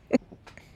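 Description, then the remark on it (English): A dog smushing her face into a sheepskin while trying to get comfortable gives one quick snort, a short burst of nasal air, followed by a few softer snuffling breaths against a quiet background. “that's her snorting.”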